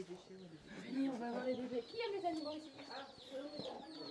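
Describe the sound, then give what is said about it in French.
A flock of baby chicks cheeping: a busy, overlapping stream of high, thin peeps that never pauses, with lower clucking or murmuring sounds running underneath. “Il y a des petits poussins.”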